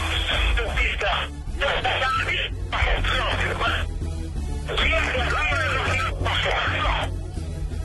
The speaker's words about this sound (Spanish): ¿Y qué es eso? ¿Es el, el, el, el eco o qué? Oiga el contacto desde la Radio Moto.